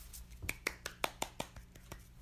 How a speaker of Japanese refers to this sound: 何拍手っていうね、ちょっとこれどうなってるんだっていう話なんですが